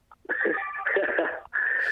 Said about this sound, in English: you've got your phone ringing there, so I'm going to let you go.